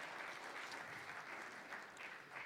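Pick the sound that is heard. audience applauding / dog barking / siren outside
audience applauding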